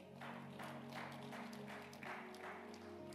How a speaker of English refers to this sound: Give the Lord a mighty clap of offering.